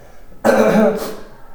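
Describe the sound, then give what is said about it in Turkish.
A single throaty cough from a person who is sick bursts out suddenly and rasps for about half a second before trailing off into quiet. “Bir öksüreceğim.”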